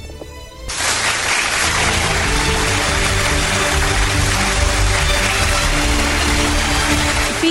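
After a brief moment of quiet, loud, dense applause kicks in and holds steady, a continuous wash of many hands clapping with no voices over it, given for a listener's song request.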